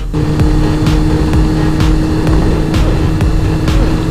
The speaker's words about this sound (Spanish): La moto se mueve, pero no se mueve tanto y tampoco se me aprieta el culo.